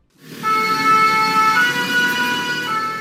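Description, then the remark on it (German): An emergency vehicle siren sounds loudly and continuously at the Notre-Dame cathedral fire in Paris on the evening of 15 April 2019, its bright stacked tones holding steady with a slight rising wail midway, over a low rumble of traffic and engine noise. “Im Blaulicht der Einsatzwagen stehen am Abend hunderte Pariser Bürger und Touristen auf den Seinebrücken.”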